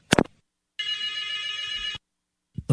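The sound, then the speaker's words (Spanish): A telephone rings with a steady, bright electronic trill lasting just over a second, clear, bracketed by short sharp noises before and after. “tengo el teléfono mío, yo te estoy llamando”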